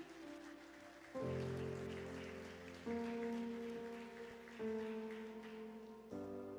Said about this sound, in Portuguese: E você aplaude o Senhor por esta palavra.